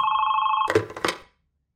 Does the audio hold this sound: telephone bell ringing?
yes